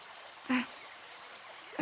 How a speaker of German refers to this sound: Das kühle Flusswasser ist doch super angenehm bei der Hitze hier.